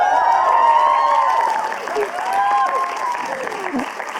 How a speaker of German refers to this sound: Ich würde sagen, wir können einmal kurz ausrasten und jubeln. Yeah.